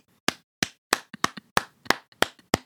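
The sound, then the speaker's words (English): A series of about a dozen sharp hand claps in an uneven rhythm, some loud and crisp, others softer, with no talking. “can you hear this clapping?”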